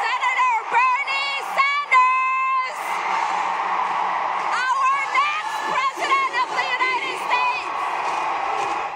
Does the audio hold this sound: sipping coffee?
no